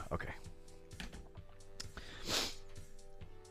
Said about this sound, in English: Man, I am I am bad this morning. About I'm type I'm not typing very good.